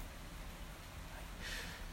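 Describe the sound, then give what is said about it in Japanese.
Steady, faint rain falls outside, a soft continuous hiss of drops with a brief brighter patter near the end; no one speaks. “はい、まあ今まだね、全開で雨の音も入っていてもしかしたらいろんな雑音が入ってくるかもしれませんのでごご容赦ということで”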